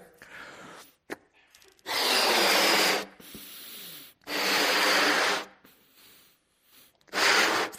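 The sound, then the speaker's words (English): Someone blows up a balloon in three strong, breathy puffs about a second each, with short pauses and quiet breaths between them. No one speaks. “So, whose breath is inside this balloon?”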